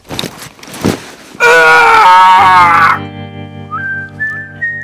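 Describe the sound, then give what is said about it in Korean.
Soft rustling gives way to a loud, sustained scream lasting over a second, wavering in pitch, followed by quieter rising whistle-like tones, heard at dawn. “새벽 달빛에 누군가 할아버지께로 다가가는 게 보였고 마침내 부스럭거리는 소리가 들린 후 이런 비명이 들려왔습니다.”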